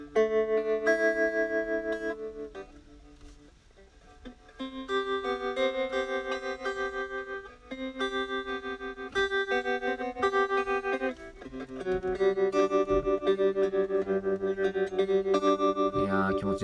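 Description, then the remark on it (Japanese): Sustained electric guitar chords played through a slow tremolo effect ripple with a steady pulse, the volume rising and falling in an even rhythm as the chords change, played alone and fairly loud. “これあのトレモロっていうエフェクトでうん、なんていうんですかね、ただ音が、こう、うんと、音量が上がったり下がったりするだけなんですよね。だから、一番エフェクトの中でも単純なエフェクトなんですけども、この音が上下するってだけでなんでこんな気持ちいいんですかね”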